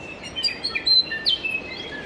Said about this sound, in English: but I thought we'd start with some other birds.